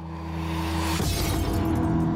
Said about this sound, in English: If you've never smashed anything before, feels great.